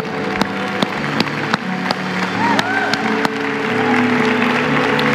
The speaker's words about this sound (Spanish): Vamos a darle un fuerte aplauso al Señor.